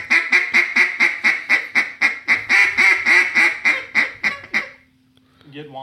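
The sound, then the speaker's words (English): A Boss Hen hen duck call blows a rapid, steady run of about a dozen loud, nasal quacks, a low whine running beneath them, then a faint hum and brief talk at the end. “whine on the bottom end.”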